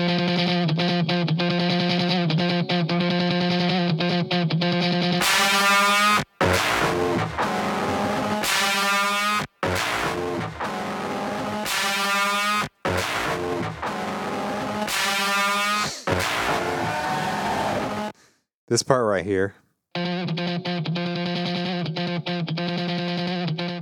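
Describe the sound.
A heavily distorted guitar hammers away on a single note over a pounding drum breakdown, loud and dense, with brief cutouts and a short spoken remark near the end.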